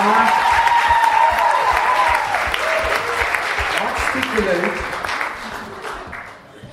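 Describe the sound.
Steady, dense audience applause that holds loud for several seconds, then gradually thins and fades, with a man's voice speaking briefly over the clapping.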